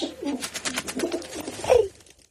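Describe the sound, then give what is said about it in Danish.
A pigeon coos in a soft, rolling series of low throaty notes, rising to a fuller coo near the end before fading to quiet. “Så skal vi snakke om duer.”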